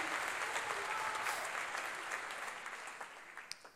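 A church audience applauds steadily for the name of the Lord, a dense wash of clapping that holds strong before gradually thinning out, with a few sharper individual claps near the end.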